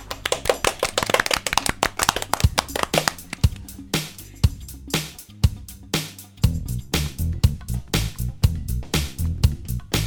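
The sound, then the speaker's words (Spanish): A small group at a radio station applauds the singers: a quick burst of overlapping claps that thins into separate, uneven claps continuing to the end, with a low steady hum beneath. “Les agradecemos a ustedes un fuerte aplauso para nosotros que nos animamos a cantar.”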